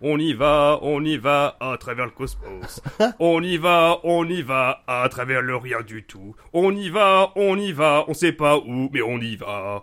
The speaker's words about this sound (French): Mais c'est un chant de stade que tu viens de chanter là. C'est vrai que oui, ça ressemble un petit peu à ça